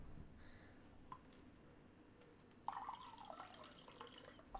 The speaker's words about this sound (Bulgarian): Успокоих се, чакай да пия една вода.